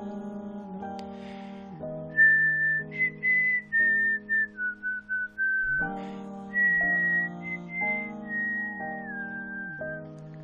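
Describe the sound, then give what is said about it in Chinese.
A high, clear whistled tune, as the story character Havard whistles while running toward the forest, plays over steady instrumental backing, starting with short bouncy notes, then sliding into longer, gliding tones. No one talks. “哈瓦尔吹着口哨向森林跑去。”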